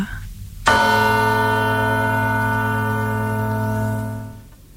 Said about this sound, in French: Tu es tranquille chez toi et on sonne à la porte.